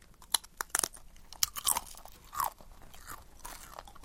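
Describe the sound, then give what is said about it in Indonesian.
Crisp crunching as someone chews dried potato chips made from large potatoes sliced thin and dried, a string of sharp, irregular bites and crackles, loudest early on, then softer chewing. No talking. “gitu loh, kentang oh. besar diiris-iris gitu terus dikeringin.”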